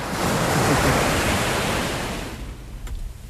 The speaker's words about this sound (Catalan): Això requereix un acompanyament una mica oceànic, així que, si plau, unes onades.